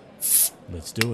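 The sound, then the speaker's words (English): A bottle cracks open with a short, bright fizzy hiss lasting about a quarter second, then a voice speaks a few words. “All right, so pop a bottle.”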